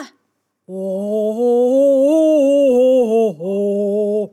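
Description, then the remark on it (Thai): A voice imitates a cow's moo as a low note for an animal chorus: one long, low, sustained call, loud, wavering slightly and briefly dipping before carrying on to the end. “ไหนเจ้าวัวหมูลองเป็นเสียงต่ำๆดูสิ อีกทีนะเจ้าวัว”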